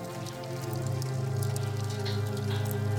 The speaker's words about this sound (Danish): En smældende lyd. En tændstik, der stryges. Flammer, der blegt gnistrer ved Jonathans fødder. Hvad sker der? Hvad, et skrig. Jonathan bryder ud i flammer.